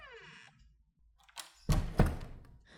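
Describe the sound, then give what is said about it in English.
A door opening onto a hallway eases shut with a faint creak, then a soft double thunk as it meets the frame and latches, fairly quiet, with no voices. “Abby walked to the door, looked into the hallway, and closed the door quietly.”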